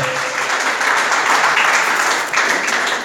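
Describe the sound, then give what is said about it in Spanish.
Sustained applause from an audience, given to the Lord in the morning, a dense, steady wash of many hands clapping at once for about three seconds, loud and even with no voices standing out. “Denle un aplauso, por favor, al Señor esta mañana.”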